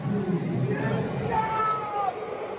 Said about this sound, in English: And speaking of fans, this week the Yankees played the Houston Astros and they booed.